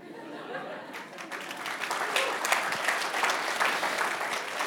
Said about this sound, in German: Genau, alle klatschen.